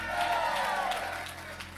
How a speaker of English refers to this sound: If you believe it, give him a good hand clap and a shout today.